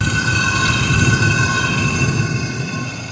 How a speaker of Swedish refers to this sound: Frida tar stenen och börjar rulla. Snart uppstår ett dovt mullrande som hörs lång väg.